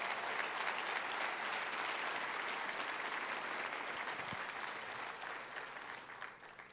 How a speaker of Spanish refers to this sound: Dale el aplauso a Jesús.